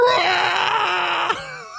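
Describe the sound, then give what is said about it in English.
A voice imitates a horrendous scream: one sustained, loud, strained wail held steady at a high pitch, breaking off sharply into a brief lower-pitched trailing sound. “Uh, they just let out a horrendous scream, like a kind of.”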